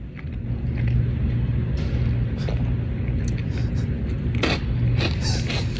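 Chips being eaten, with a handful of sharp, crackly crunches at irregular intervals over a steady low rumble. No one speaks.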